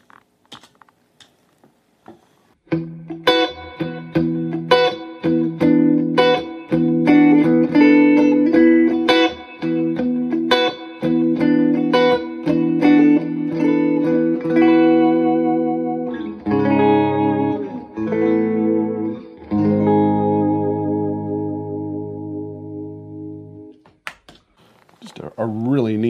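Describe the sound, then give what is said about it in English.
An electric guitar with a delay effect, played on a dual pickup setting, plays a run of quick picked notes and then sustained chords. Each note trails into repeating echoes, ending in a long ringing decay before a brief final strum. “Here, I might as well go full on get some delay going.”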